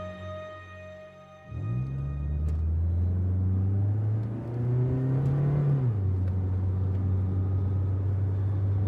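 A car engine fires up and revs hard on a trip to Tagaytay, a loud, throaty roar that holds steady, dips briefly, then settles into a deep continuous rumble. No one speaks.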